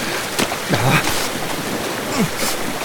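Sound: rushing river current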